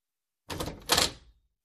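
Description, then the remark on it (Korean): A bedroom door swings open in two quick bursts, a latch click then a broader creaking sweep, fairly loud, with no voices and silence before and after. “나는 내 방문을 열자마자 불을 켰다.”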